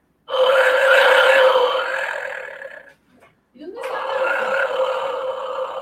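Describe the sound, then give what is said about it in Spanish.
A clay jaguar whistle from Teotihuacán, bearing a pyramid, lets out two long, loud, raspy roars, the first lasting over two seconds, then a brief pause before the second growling blast. “tenemos aquí el jaguar, el jaguar de Teotihuacán, aquí tiene una pirámide, no sé si lo alcanzan a ver ustedes”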